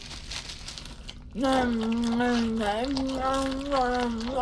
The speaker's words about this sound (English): could you eat any louder?